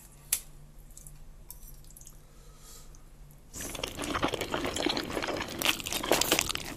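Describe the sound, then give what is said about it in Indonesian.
After a few quiet seconds with a single click, steady wet chewing and slurping of Indomie goreng fried instant noodles begins, a dense, moist, crackly eating sound that continues to the end without speech. “Di episode kali ini gue sambil makan mie goreng.”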